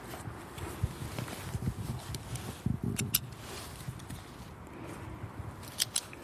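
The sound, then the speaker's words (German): Scratching of a pen writing a name in a geocache logbook, broken by small clicks and handling noises, with a low outdoor rumble underneath and no one speaking. “Ohne Stift lässt sich schlecht der Name im Logbuch eintragen.”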